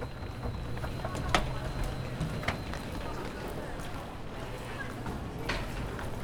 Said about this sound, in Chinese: 或者你也想过，其实手扶梯是有声音的，你是观察过的。可是呢，当手扶梯的声音进入到录音机里面被录下来的时候，你会不会发现手扶梯的声音其实好大声的，而且听起来有点刺激？